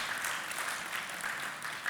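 An audience claps their hands together in a dense, steady burst of applause, many overlapping claps blending into a bright, continuous patter for about two seconds with no voices.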